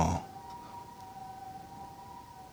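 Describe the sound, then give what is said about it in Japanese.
A fire engine siren passing outside sounds faintly, a steady held tone that drones on continuously after a brief burst of noise at the start, with no voices. “これサイレン拾ってるのかな今今すごいね今ね拾ってます、ね、これなん消防消防車消防っぽいですね”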